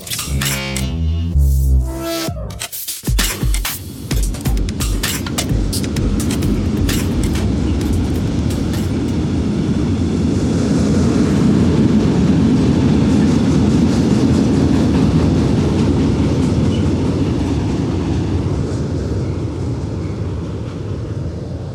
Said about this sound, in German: Das, was ihr da gerade gehört habt, war ein Güterzug, der über die alte stählerne Eisenbahnbrücke hier über den Rhein gefahren ist, direkt neben der Autobahnbrücke von der A42 bei Duisburg, die auch über den Rhein führt.